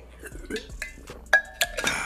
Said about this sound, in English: but we're gonna get back on topic real quick after i drink some water right here okay